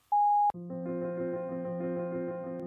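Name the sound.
voicemail beep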